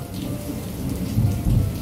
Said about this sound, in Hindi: अरे साहब जी साहब जी बाहर बहुत बारिश है आप भीग जाओगे मत जाइएगा